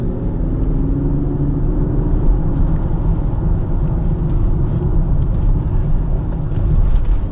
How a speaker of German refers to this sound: Der Motor passt auch ziemlich ideal zu dem Auto. Das ist ein 3 Liter 6 Zylinder Diesel mit 350 PS und 700 Newtonmeter Drehmoment. Also er hat nur ganz wenig Turboverzögerung.